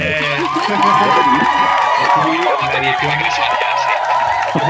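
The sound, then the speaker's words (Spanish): A large crowd cheers and shouts loudly with scattered clapping mixed in, a dense, continuous roar of many voices that holds steady for the whole few seconds. “en la edición aquí ponemos aplausos y gente gritando.”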